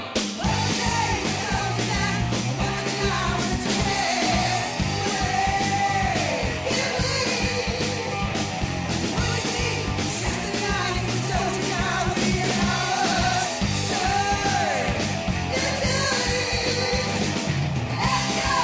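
Loud, dense heavy metal plays throughout, with pounding drums, distorted guitars and a high, wailing male voice soaring and sliding over the band.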